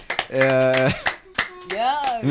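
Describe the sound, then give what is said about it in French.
Several sharp, irregular hand claps from two people beside the speaker, scattered among loud drawn-out vocal exclamations, the claps sounding as crisp bursts between and over the voices. “Merci aux deux compères qui applaudissent à côté.”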